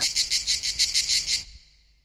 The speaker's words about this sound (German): Er, den der dunkle Baum warf und den ich nicht sah, aber den ich doch hörte im Gesang der Zikaden. Der Schatten. In diesen Geräuschen liege ich gern.